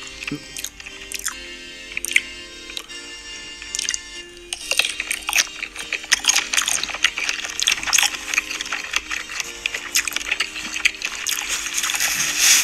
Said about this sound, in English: So he's, he's dipping the sausages in mustard uh, and uh, rubbing the toast against his beard. He's actually rubbed the bratwurst on his beard as well and uh, he's just munching on sausages constantly for 15 minutes.